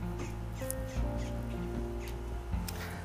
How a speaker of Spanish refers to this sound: Estoy aquí con los pájaros en el patio de mi casa. En mi jardín secreto.